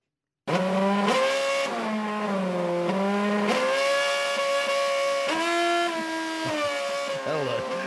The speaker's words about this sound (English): this was at Bathurst. They decided it was a great idea to, to play the national anthem with a car playing it. I'm not going to play the whole lot because my ears were screaming by the end of it. This is how they did it.